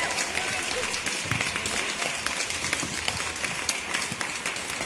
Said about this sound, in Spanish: ¡Aplausos fuertes!